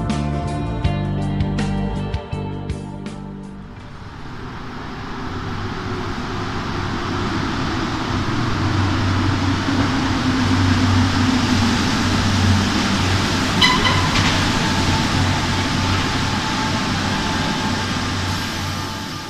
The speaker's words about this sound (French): À Villeurbanne, tout le monde connaît Flachet. Station de métro, on vient d'en entendre le bruit, quartier, rue, les repères ne manquent pas pour désigner cet espace à cheval sur le cours Émile Zola